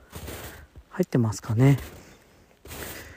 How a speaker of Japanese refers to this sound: 外は気持ちいいですねほんとあの時折鳥の鳴き声がしたり僕はこの雪を踏んでる音とかも